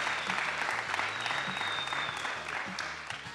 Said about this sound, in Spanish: Un aplauso, un aplauso a Barrani. Un aplauso para Barrani.